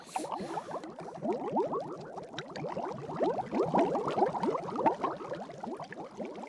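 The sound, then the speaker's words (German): Water sloshes and splashes in a bath, a steady run of small liquid gurgles and laps lasting the whole stretch, with no voices. “Raus aus dem Wasser und rein in den Speisesaal.”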